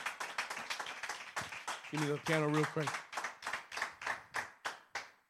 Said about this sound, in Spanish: Alguien está aquí conmigo. Le das un aplauso fuerte al Señor.